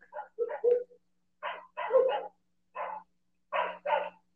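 Dogs bark in short, sharp bursts, several yaps coming in uneven clusters with brief pauses between them. The barking is clear, with no one talking over it.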